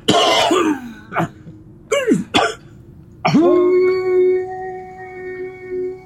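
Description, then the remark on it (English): A few harsh coughs and throat-clearing bursts in quick succession, followed by a long, steady, droning tone that holds for several seconds. “I might actually just cough first because I'm like.”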